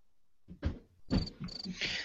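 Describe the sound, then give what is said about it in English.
Crickets chirp in short, shrill bursts after a brief moment of quiet, the trills steady with no voices, a stock cricket sound effect played during an online meeting. “Sorry, I had, I had to play the crickets.”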